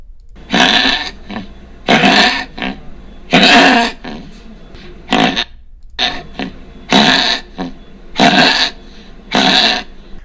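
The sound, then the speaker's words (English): A small dog with tracheal collapse gives a series of harsh, honking coughs in repeated bursts, each a loud goose-like hack with brief pauses between, with no talking. “So here's a small dog that has tracheal collapse, and this is what it sounds like.”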